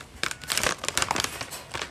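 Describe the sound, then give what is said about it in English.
Crinkly plastic snack packaging being pulled open, a fast run of sharp rustling and crackling bursts that come and go unevenly for about two seconds, with no talking. “So, I am opening these now.”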